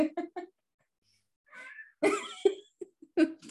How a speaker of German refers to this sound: Alter, diese Katze hier, ne? halt doch mal den Mund. Wir nehmen hier auf. Geh weg.